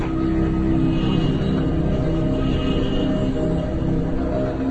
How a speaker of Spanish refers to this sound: Es Ramón Parrilla, también tractorista de la finca. Acaba de llegar en su tractor en busca de agua.